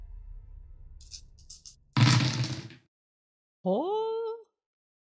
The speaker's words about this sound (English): As you go down this alley, go and roll the dice pool for me. The, all of them? Uh, yeah.